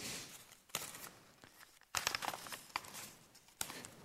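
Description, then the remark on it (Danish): A fine, white, glossy sheet of paper crinkles and crumples in several bursts of crackling, with brief quieter pauses between handlings and no voices. “Man kunne sige det på den her måde, at det var det fine, hvide, blanke stykke papir, som, som blev koldet sammen. Men det fantastiske ved Gud, det er, at øh, at papiret alligevel ikke bliver kasseret.”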